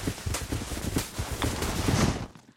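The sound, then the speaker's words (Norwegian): A ridden horse walks at an unhurried pace through snow on a morning ride by a small lake and woods, its hooves crunching and thudding in an irregular rhythm as snow sprays around them, amid a steady rustling hiss, fading out at the end. “Hesten Rocky skritter i vei på den faste morgenturen rundt et lite vann”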